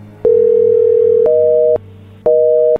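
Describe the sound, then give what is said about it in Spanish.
A telephone line tone after dialing: a long steady low electronic hum, then a slightly higher two-note tone pulsing on and off, each start marked by a faint click. No voices. “a ver, márcale de nuevo, a ver si nos contesta, a ver, márcale.”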